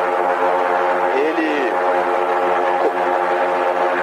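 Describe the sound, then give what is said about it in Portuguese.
The engines of a blimp's two propellers, one on each side, drone loudly and steadily with a dense buzzing hum, their pitch briefly sweeping upward as the pilot accelerates them and the blimp climbs over São Paulo. “ativa os motores, as duas hélices, uma de cada lado do blimp.”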